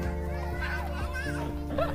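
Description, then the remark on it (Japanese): Children's voices fill the space, a lively jumble of calls and chatter over a steady low hum, continuous and fairly loud for the whole stretch. “はい、ということでちょっと騒がしい中での配信になりましたけれども、はい、いや本当失礼しました、はい、あの、はい、子供たちの声とともに、えーと今日はお別れをお伝えしたいと思います、はい、ではまた”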